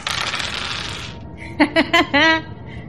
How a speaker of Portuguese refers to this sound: rola dois dados.